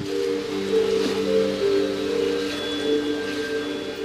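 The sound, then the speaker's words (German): Water gurgles and splashes steadily in large sea turtle tanks, a continuous wash of sound over a low, humming drone, with no one speaking. “Und äh, Sie hören ja schon das Gluckern im Hintergrund, dieses Gluckern des Wassers.”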